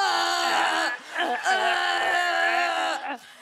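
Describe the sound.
A person imitates crying like a horse, a loud, sustained wailing whinny with wavering pitch, broken by two brief catches in the breath, alone with no talking.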